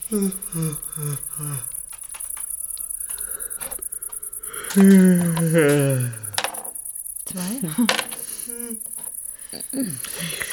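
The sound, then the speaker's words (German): A cricket bought at a pet shop chirps continuously on a boat in a high, steady trill that runs through the whole recording, while people talk and laugh. “Sag mal, wo hast denn du die blöde Grille her?”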